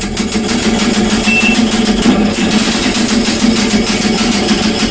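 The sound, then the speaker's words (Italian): Rapid, steady typewriter clatter fills the whole stretch, a dense run of sharp mechanical clicks with no pauses or voices, as someone types a horror book at 3 a.m. “Writer machine”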